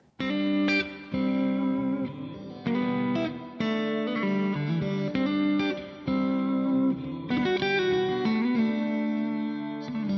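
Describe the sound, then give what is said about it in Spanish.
A song's instrumental opening plays clearly, a song composed about a young woman's vocation to follow Jesus Christ, played during meditation on religious texts. Sustained, effect-laden chords shift every second or so at a steady, full volume. No voices are heard. “Meditamos los textos que hemos citado mientras escuchamos esta canción.”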